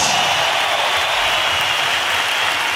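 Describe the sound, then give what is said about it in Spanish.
An audience at a rock gig claps steadily for disabled attendees, a dense, crackling wash of applause that holds at a loud, even level for the whole stretch with no voices over it. “Que soy un aplauso chido para ellos.”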